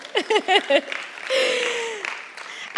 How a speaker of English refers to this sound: Give him a little clap as well. Go on.